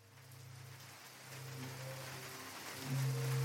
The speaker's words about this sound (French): À l'extérieur, il pleut des trombes.